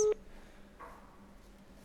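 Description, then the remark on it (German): A single short, loud telephone ringback tone on an outgoing call to Portugal sounds at the very start, then cuts off, leaving a quiet, hissy phone line with a faint hum and no one speaking. “es klingelt.”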